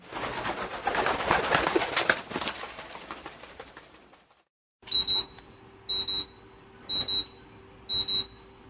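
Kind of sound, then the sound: household object, alarm clock ringing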